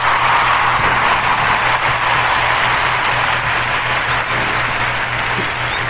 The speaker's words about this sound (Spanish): Que se oiga el aplauso fuerte